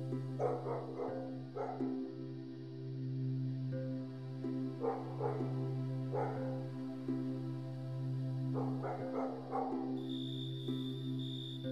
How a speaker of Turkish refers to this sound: Sokakta havlayan köpek.